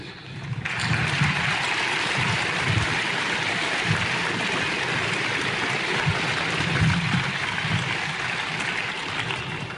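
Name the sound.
audience applause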